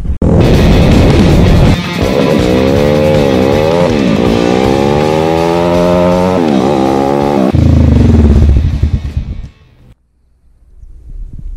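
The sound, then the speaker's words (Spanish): A loud motorcycle with an open exhaust runs with a rough, buzzing rumble at a boat landing area surrounded by water, about 37 km from Quillón, its pitch rising and falling as the throttle is worked, then it cuts off near the end, leaving quiet. “Em, bueno, puedo entrar con la moto hasta, hasta cierta parte y la dejé ahí por respeto a los animalitos, a la aves, que igual tiene escape abierto.”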